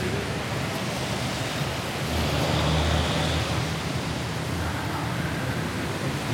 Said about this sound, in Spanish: Es que es un viernes de lluvia.